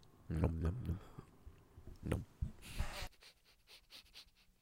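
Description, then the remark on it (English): Several short, rough coughs come in separate bursts, with breathy, snorting sounds between them and no clear speech. “I had to cough. That's what I was mm. doing there.”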